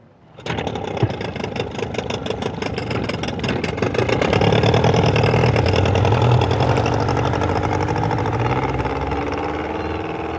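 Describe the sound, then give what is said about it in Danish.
A boat engine, on a boat being boarded to go out to an island, turns over after a second and settles into a steady, loud idling rumble with a rhythmic chug, running without pause and with no voices. “Men vi tager bord på den her båd”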